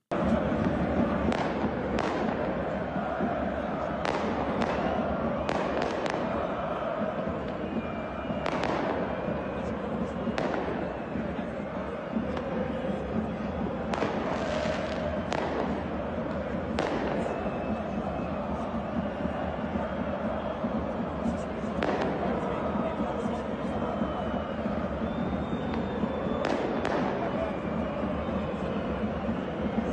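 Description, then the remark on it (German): Fireworks and firecrackers set off by visiting Bochum fans in the away block of the Westfalenstadion at the start of the second half crack and pop sharply at irregular intervals, some in quick clusters, over a constant roar of the stadium crowd that never lets up. “Nicht nur ein paar Bengalen, sondern auch Feuerwerk flog durchs Westfalenstadion.”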